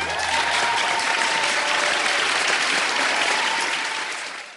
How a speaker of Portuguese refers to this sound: Uma salva de palmas para o nosso décimo episódio.